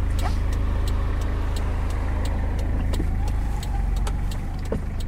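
Steady low engine rumble and road noise from inside a car driving slowly from Morup down to the small harbour of Morup Havn on Samsø, Denmark, a 2-3 minute drive; continuous and fairly loud, with faint rattles and light clicks over the drone.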